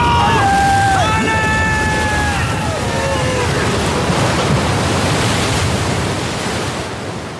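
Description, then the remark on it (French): Heavy storm waves at sea surge and crash in a loud, unbroken roar of water and wind, with brief wailing, creaking tones rising over it in the first few seconds; the wind is rising and the waves grow higher and higher. “Regarde Les vagues Les vagues sont de plus en plus hautes Il faut démater, et vite Les vagues sont trop hautes Nous allons chavirer”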